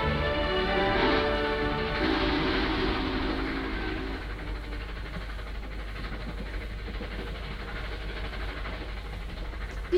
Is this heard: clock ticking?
no